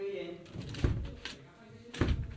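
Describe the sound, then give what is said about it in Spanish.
The door of a soundproof training room is pushed shut with two solid knocks about a second apart, the second a firm latch-like clunk, over a quiet hum. “Cierro la puerta.”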